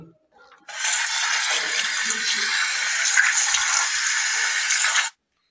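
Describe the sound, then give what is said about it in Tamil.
Water pours steadily into a container for about four seconds, a continuous splashing rush that starts abruptly and cuts off cleanly. “so இங்கே தண்ணி கூட நான் தான் போய் வைக்கணுமா போறேன் இந்தாங்கடா தண்ணி”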